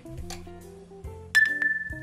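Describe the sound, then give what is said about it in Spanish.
Glasses clink together once in a toast, a sharp chime that rings on briefly, heard over a low, steady background drone. “Después el chinchín.”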